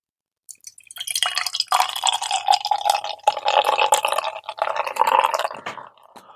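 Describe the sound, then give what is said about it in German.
A drink is poured steadily into a tilted glass, a continuous bubbly, splashing stream lasting about six seconds before trailing off, with no voices. “Ich, ein Glas habe ich noch. Moment, ich halte es mal schräg.”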